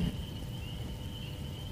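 Rain falls steadily on a swamp, a dense, even hiss of drops with low pattering texture and a thin, constant high whine running through it, with no voices.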